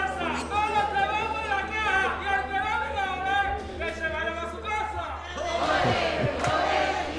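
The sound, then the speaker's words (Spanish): A loud, sustained shout rings out from an audience member in a theatre, rising and falling in pitch above a constant murmur of crowd noise, with another surge of voices near the end, while the audience waits for a comparsa to come out. “Ahora sí, vamos a esperar un poquito ah, el grito ahí, que tiene pulmones buenos para salir una comparsa.”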